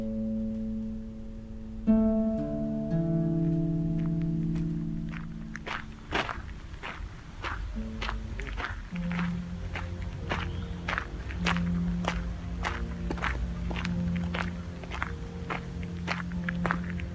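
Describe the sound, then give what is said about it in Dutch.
Steady footsteps crunch along at an even walking pace past a building in the Citadelpark in Ghent, a long run of regular, fairly loud steps over a low droning hum, with no voices. “Ja, we, we, lopen nu voorbij dat uh, vreemde gebouw.”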